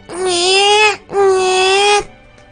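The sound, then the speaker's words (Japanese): A person imitates a newborn crying: two loud, sustained, high-pitched wails, each nearly a second long and separated by a brief gasp, with no other talking. “このあのー、赤ちゃん、赤ちゃんの泣き真似をするときの、あの細い管を、細い、細い細い管を、大量のお水がそこから出ようとするというイメージで、泣くといいです。”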